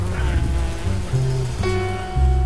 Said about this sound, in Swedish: Vi har gjort en del avläggare och nu börjar det bli ganska trångt med alla bikupor i bigården. Jag slås av hur mycket det faktiskt låter av alla bin tillsammans. Hela vägen till huset faktiskt.